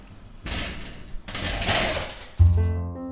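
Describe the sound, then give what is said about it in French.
Mostly old machines in a leather bag workshop run in loud mechanical bursts, a rattling whir that stops and starts, then gives way to a steady, humming motor drone at the end. No one speaks. “C'est peu dire que les machines présentes dans l'atelier participent à l'ambiance, par le bruit mécanique qu'elles produisent, évidemment, mais aussi d'un point de vue esthétique”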